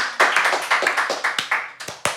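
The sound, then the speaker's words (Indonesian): Quick, uneven hand claps from a few people, a dense run of sharp slaps that thins toward the end with a couple of final louder claps. “mantap tepuk tangan dulu buat dua”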